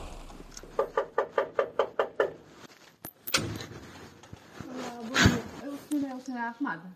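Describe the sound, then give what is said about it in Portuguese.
A quick run of about eight firm knocks on the door of a house in the parish of Baleizão, followed after a pause by the sharp click and rattle of the door being opened, then voices talking. “Quem abre a porta diz que Ahmad está fora.”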